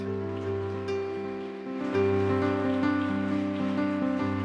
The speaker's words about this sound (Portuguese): Aleluia! Aplauda Jesus essa noite. Oh glória!